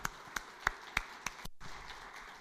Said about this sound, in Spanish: ¿Cuánto damos un aplauso a Dios? Aleluya.